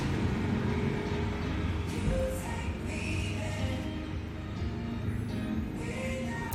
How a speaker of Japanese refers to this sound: 今ねマクドナルドにいるんですよあのー、ですのでちょっとうるさいとうるさかったらごめんなさいで国道沿いのねマクドナルドにいますんで車の音もうるさいので、えー、ちょっと音が悪かったら教えてくださいね